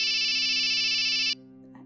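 A phone ringtone sounds loudly and steadily as a bright, sustained electronic tone, then cuts off abruptly after about a second, leaving quiet background.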